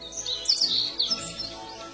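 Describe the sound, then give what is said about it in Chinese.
A bird calls with a quick run of high, bright chirps and tweets, strongest in the first half before trailing off into a soft background. No one speaks. “但是有一天，小鸭子听到了一声鸟鸣。”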